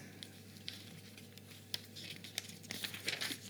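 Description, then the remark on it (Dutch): A sheet of paper being turned over to its back side, a series of soft crinkles and rustles that grow busier toward the end, with no one speaking. “Bij de achterkant van mijn papiertje.”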